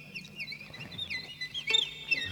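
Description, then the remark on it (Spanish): Quick, wavering high-pitched chirps and trills repeat throughout, a voice or instrument mimicking a small bird's song, with faint low rumble and a brief click near the end. “muy conseguida, ¿vale? Muy buen pájaro.”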